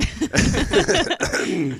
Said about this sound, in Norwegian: Dere får bare prate mens jeg hoster. Ja, sånn er det å ha sykdom i redaksjonen.